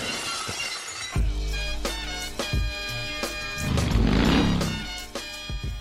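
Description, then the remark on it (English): Pots and pans crash and clatter loudly in Geordi's living room as the cat Spot runs out of the room, several metallic impacts tumbling over about five seconds with bright ringing tones lingering between hits, building to a noisy jumble near the end. No one speaks. “The cat finally, like, runs out of the room to the sound of pots and pans crashing in Geordi's living room.”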